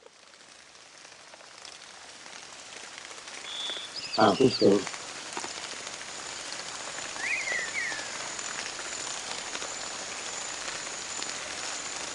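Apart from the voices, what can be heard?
rain falling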